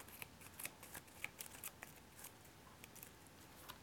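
Playing cards being shuffled, a rapid run of crisp, papery riffles and flicks with no one talking.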